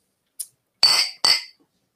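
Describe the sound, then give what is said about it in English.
Beer glasses clink together in a toast before the first drink, two bright ringing clinks after a faint tap, each ring fading quickly into silence. “First drink. Cheers.”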